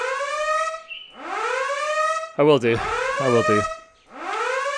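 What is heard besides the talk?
alarm siren going off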